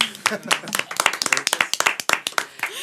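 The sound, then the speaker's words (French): A crowd applauds with dense, rapid clapping that stays fairly loud and steady throughout, with some voices faintly mixed in beneath the claps. “ok, moi je dis on peut les applaudir parce que c'est eux qui vont nous aider plus tard.”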